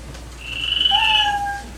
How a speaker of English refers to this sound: comedians, you get 60 seconds. You know your time's up when you hear the sound of a kitty.